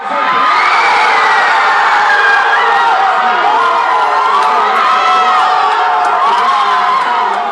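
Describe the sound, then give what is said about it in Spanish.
A huge stadium crowd of Brazilian fans roars in celebration after a Brazil goal against Mexico, a loud, sustained wall of cheering, shouting and singing that rises and swells continuously, with scattered whistles and whoops cutting through. “gol de Neymar. Los cariocas enloquecen, se paran, gritan, se envuelven en sus banderas y comienzan a cantar.”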